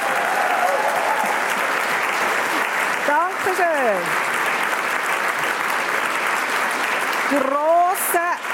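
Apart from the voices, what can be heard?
audience applause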